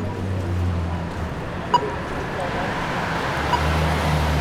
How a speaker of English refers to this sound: All of those sounds are types of APSs, or accessible pedestrian signals.